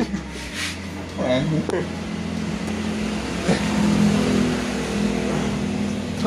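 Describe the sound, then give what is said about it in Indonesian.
A heavy truck rumbles past, its deep engine drone swelling and peaking midway before starting to fade, with a voice faintly audible underneath. “truk lewat truk”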